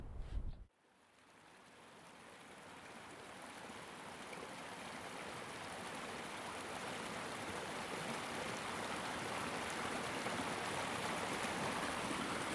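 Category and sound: nature, river water flowing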